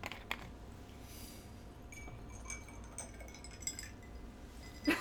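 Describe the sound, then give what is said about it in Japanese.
A drink is poured quietly into a glass: soft trickling with faint glassy clinks and chimes over a low, steady hum, with no one speaking, ending in a brief louder knock. “いやいや静かに静かに飲み物注ぐ音だけ聞こえてましたよ今ええー、音鳴ってましたよいやいや、えー、CM 来るわ。”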